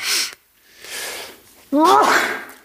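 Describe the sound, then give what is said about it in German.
A forceful sneeze bursts out after a sharp breathy intake, its voiced tail rising in pitch before trailing off. No one talks over it. “Gesundheit.”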